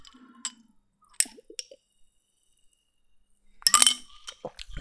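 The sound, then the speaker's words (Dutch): A glass marble clinks inside a Ramune soft drink bottle, lodging in the top and blocking the drink, with a few sharp, separate taps early on and then a busier burst of rattling clinks near the end, fairly quiet. “Die komt namelijk in de dop te zitten. Maar hij zit nu ook in de weg, want hij houdt het drinken eigenlijk tegen.”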